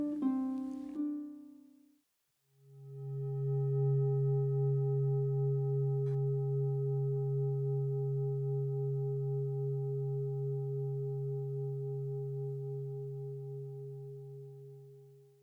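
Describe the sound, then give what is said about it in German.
A meditation gong marking the start of a meditation sounds after a brief tonal note, then rings out as one long, low, steady hum with soft overtones, slowly fading over about twelve seconds with no talking. “Die Meditation beginnt und endet mit einem Gong.”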